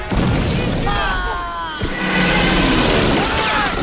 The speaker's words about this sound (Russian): раздается взрыв, они спрыгивают в окоп. Пролетающие самолеты сбрасывают бомбы, солдаты, не поспевшие укрыться в окопах падают.